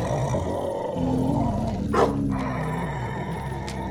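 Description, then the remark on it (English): A coyote attacking a bear, darting in and out and trying to hamstring it, with continuous loud roaring and snarling, a sharp yelp or bark bursting out midway through the struggle, and no voices. “The coyote's attacking the bear, darting in and out, but, but I don't understand.”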